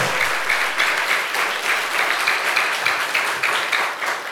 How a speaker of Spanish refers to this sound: ¿Cuántos dicen amén? Dele fuerte ese aplauso al Señor. Fuerte ese aplauso.